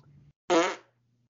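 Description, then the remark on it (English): A single loud, sputtering fart bursts out in a waiting room, lasting under half a second, between stretches of faint low background hum. “While I was in the waiting room with Goto-san, I couldn't help but let out a loud fart.”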